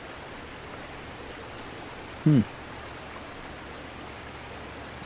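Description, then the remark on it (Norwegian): A steady, rushing hiss like simulated tinnitus fills the whole recording, with a faint thin high whine running over it and a brief murmured voice partway through. “Det er tinnitus som suser og bruser.”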